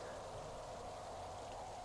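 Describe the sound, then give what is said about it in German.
Steady rain hisses evenly with a low, continuous rush of howling wind underneath on a stormy night, a constant, fairly soft wash of sound with no voices and no breaks. “Heulender Wind, sträubender Regen, flackernde Kerze.”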